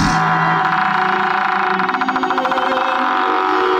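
A wooden bedroom door creaks open slowly, a loud drawn-out groan with a grainy, stuttering rasp that tightens into rapid pulses midway and then eases off. No voices are heard.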